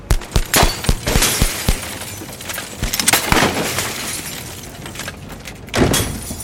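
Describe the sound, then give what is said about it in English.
Glass of a high-rise building, the Hall of Records in downtown Los Angeles, shatters repeatedly amid sharp gunshots as bullets are exchanged with police: a rapid volley of loud impacts early on, then a sustained crash of breaking shards and another heavy burst near the end. “Glass from the high rise building shattered all around them as they whisked by.”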